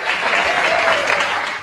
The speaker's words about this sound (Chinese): 此处可以有掌声。